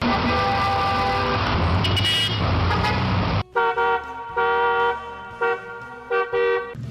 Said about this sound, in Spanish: No, hombre, esa locación móvil del Rollis, la chilladera de los frenos de los carros y los pitadera. Ya van dos veces que me espanto y pienso que soy yo.